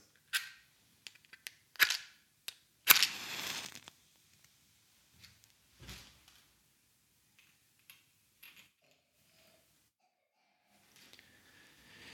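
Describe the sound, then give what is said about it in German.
A few sharp scrapes, then a match flares with a short crackling hiss, followed by faint clicks and light handling noise as the first candle of an Advent wreath is lit in a home at the start of a liturgy. Fairly crisp, with no talking. “Wie immer zu Beginn unserer Liturgie zünde ich eine Kerze an.”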